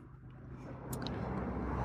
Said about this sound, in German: Merkst ja, heute ist hier großer Verkehr.